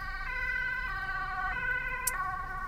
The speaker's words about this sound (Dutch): Oh, aan de kant, want er komt een ambulance aan.